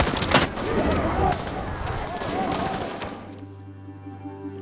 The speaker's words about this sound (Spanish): Son los disparos con los que somos introducidos a lo que ocurre en este momento. En 1989, en El Salvador, la Universidad Centroamericana de los Jesuitas.